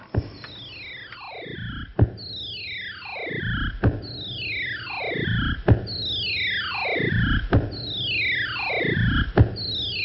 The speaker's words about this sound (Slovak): Tu je veselá chuťovka s krásnym úvodným stereoefektom evokujúcim lietanie tenisovej loptičky.